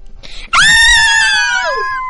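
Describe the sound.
A loud, shrill scream bursts out after a brief moment of quiet and holds for over a second before trailing off, dramatic, as if a person is acting out a fright.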